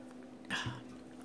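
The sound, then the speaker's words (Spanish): A short, sharp hiss-and-pop as a drink container is opened, followed by a soft low knock, with quiet otherwise. “Eh, con permiso, me voy a abrir una bebida, porque si no se me seca un poco la garganta.”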